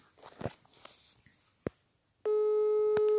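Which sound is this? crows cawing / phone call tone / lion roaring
phone call tone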